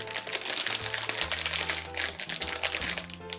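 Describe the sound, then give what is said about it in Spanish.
Dense, rapid crackling and snapping, like branches breaking up in the treetops, fairly loud and continuous over a low humming drone, with no talking. “Una vez Perico el camaleón se hubo marchado, se escucharon unos crujidos”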